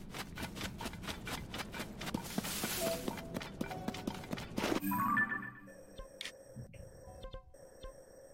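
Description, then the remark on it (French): Skeleton horse hooves clip-clop in a quick, steady rhythm for about five seconds, then give way to a quieter stretch of sparse electronic beeps and tones. No one speaks. “Des cheveux, des chevaux en squelette.”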